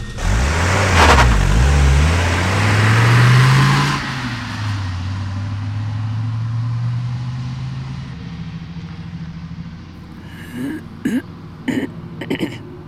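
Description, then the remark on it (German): A car engine roars and revs up sharply as the vehicle speeds away, its rising drone fading steadily away, followed by a few brief vocal sounds near the end. “Die haben es aber verdammt eilig.”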